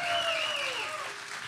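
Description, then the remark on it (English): Loyal Kansas City Chiefs fans at a championship celebration give themselves a big round of applause, a dense, steady wash of clapping hands with no voices, staying loud and fading only slightly over its short length, while a thin whistling tone glides downward through it. “Hey, give yeah. yourself a big round of applause.”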